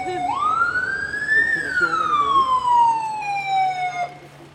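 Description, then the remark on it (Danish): A fire engine siren wails: one loud tone climbs quickly to a high peak, then glides slowly back down over a few seconds, with a faint low rumble of traffic underneath, as the fire brigade arrives on the street outside an evacuated building after a false fire alarm set off by a candyfloss machine. “Så vi står og venter på, at øh, brandvæsenet kommer herude på gaden.”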